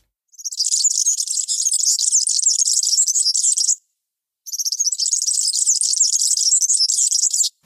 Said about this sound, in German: der kleine Girlitz, ein Fink mit einem relativ kurzen Schnabel und, und so gelb-grün gefärbt